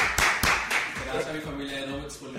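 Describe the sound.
A short burst of applause: a handful of sharp, steady claps that start loud and fade within a couple of seconds, with a voice or tonal sound continuing underneath.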